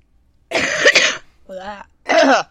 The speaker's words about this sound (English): That was not fun. That was a really gross cough, and I'm so sorry you had to hear that.